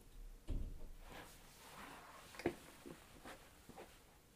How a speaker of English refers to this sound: She pulled the door closed.